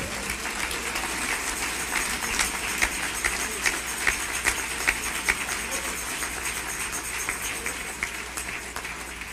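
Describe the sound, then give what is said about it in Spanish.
An audience applauds for the Lord: dense, many-handed clapping holds at an even, moderate level for about nine seconds, with a few sharper claps standing out from the wash. “Dele un aplauso al Señor, ¿qué te parece?”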